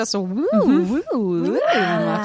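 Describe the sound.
A voice mimics a theremin, sliding up and down in smooth, wavering swoops across several sustained tones, fairly loud, with a brief murmur of speech at the start.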